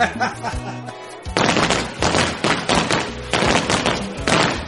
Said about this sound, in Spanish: Pues entonces, esta es doble celebración. ¡Papi, tira los petardos! Ahorita los tiro